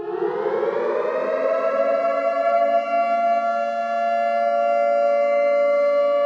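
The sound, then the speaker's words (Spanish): A loud civil defense siren winds up and then holds a steady, shrill wailing tone with rich harmonics, sustained without pause and with no voices. “Los segundos fueron aullados por el estridente ruido agudo.”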